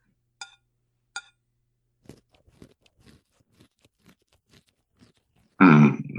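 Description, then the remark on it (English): Wet chewing of a mouthful of omelet, with irregular soft smacks and crunches over several seconds, bracketed by two brief voiced hums at the start and a loud burst at the end. “The chief hands him a plate of eggs. There you go, tempting me with one of your famous omelets.”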